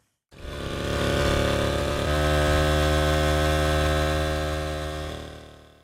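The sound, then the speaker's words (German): A small bicycle auxiliary motor runs steadily and loud, its harmonic drone stepping up in pitch about two seconds in as it revs higher, then easing slightly near the end. No voices. “Und wir haben sozusagen schon eine neue Erkennungsmelodie für BR Heimat an diesem heutigen Ratschvormittag”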